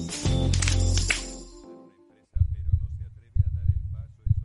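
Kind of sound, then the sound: sound effect, heartbeat sound effect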